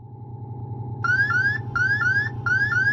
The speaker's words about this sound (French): Alarme programme 1202. Houston, que signifie l'alarme programme 1202 Compris, c'est bon, feu vert, avec cette alarme.